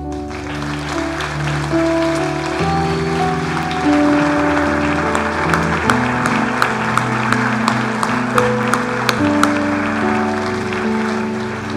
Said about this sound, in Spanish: Dele un aplauso al Señor.